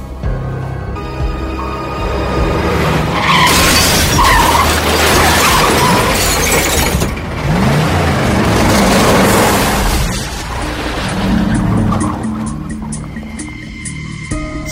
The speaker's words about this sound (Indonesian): Begitu terkejutnya, sampai-sampai ayah membanting setir dan menabrak pohon besar.